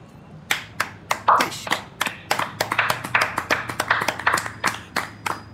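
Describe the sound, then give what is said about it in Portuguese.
Sparse, scattered applause: a small handful of hands clapping unevenly and without enthusiasm for about five seconds, the sharp claps sounding alone with no voices. “Aplausos tristes aqui.”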